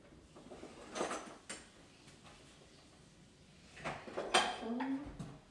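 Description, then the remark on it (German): A spoon clinks and scrapes against dishes in a few scattered bursts, with one brighter ringing clatter near the end, moderately loud over a quiet background. “Und jetzt haben wir nochmal einen Löffel zu.”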